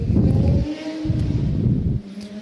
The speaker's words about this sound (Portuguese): deixa essa moto passar aqui, senão vocês não vão me ouvir.